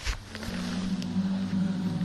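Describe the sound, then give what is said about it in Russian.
A deep, steady human hum, made on the exhale after a deep breath, starts after a brief breathy onset and holds at one low pitch for over a second and a half, fairly loud. “Вначале глубоко вдохните, а с выдохом издавайте мычащий звук э, продолжительно, глубоко, длительно.”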